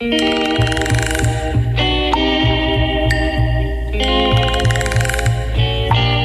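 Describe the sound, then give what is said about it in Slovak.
A romantic Czechoslovak pop duet sung in Czech plays loudly and continuously, with warm sustained melody over a steady, bouncing bass line and bright, shimmering accompaniment; no one talks over it. “Pretože to síce znejú česky, ale to boli naše československé piesne, plné romantiky a plné tých, ktorým sme závideli tú zamilovanosť, aj keď ju možno hrali, alebo bolo to naozaj.”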